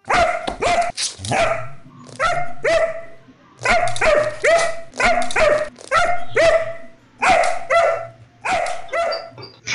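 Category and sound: animal, dog barking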